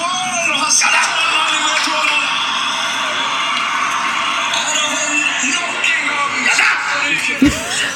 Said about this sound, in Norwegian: Ja, ja, Det er da eh, Thomas Numme som roper jadda etter at Erling Braut Haaland eh, skøyt eh, i mål straffe mot uh, Sverige. Vi vant vel 3-2.